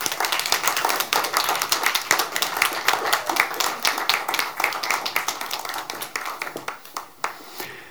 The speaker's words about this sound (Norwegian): Gi dem en applaus. Velkommen.